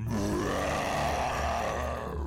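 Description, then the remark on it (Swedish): A deep, guttural monstrous roar rumbles loudly for a couple of seconds, one sustained growling bellow with no other sounds around it. “Och du hör hans vrål.”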